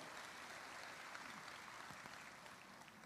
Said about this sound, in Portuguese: Diga amém. Dê um aplauso a Ele, tome seu assento.